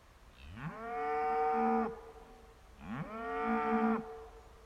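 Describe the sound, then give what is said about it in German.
Two long, loud moos from an unfenced cow, each rising in pitch and then holding a rich, droning tone before cutting off, with a short pause between them. No one speaks. “ich sehe gerade, dass die Kühe eigentlich ähm, auf meinem, die sind gar nicht eingezäunt.”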